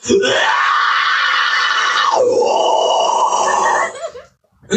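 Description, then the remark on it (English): A single sustained metal-style vocal scream by a male drummer who also sings vocals on his songs, loud, held for about four seconds with a raspy, distorted texture and a pitch dip midway before cutting off. “Samples of any of your screams?”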